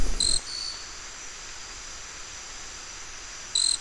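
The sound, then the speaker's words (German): High, thin insect-like calls from a small, quick bird that slips through undergrowth: a short burst at the start and another near the end, buzzy and piercing against quiet background hiss. “Und man hört ihn auch am ehesten an seinen insektenähnlichen Lauten.”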